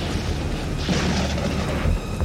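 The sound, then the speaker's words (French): A deep, rumbling thunder sound effect for a terrible, dark evening streaked with lightning rolls on steadily, heavy low-end boom with a brighter crackling swell in the middle, ending in a final low thud. No talking. “Un soir terrible, sombre, strié d'éclairs.”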